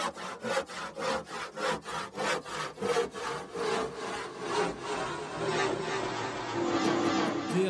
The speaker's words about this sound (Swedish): ska vi ta fram den stora sågen? Jag har ett sågljud, så jag spelar upp det här.